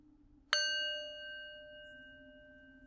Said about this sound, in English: begin with the bell together.